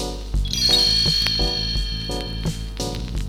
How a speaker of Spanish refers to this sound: Ustedes pueden leer en su libro junto conmigo y sabrán que hay que dar vuelta a la página cuando escuchen a Campanita, el hada de Peter Pan, tocar sus campanitas así.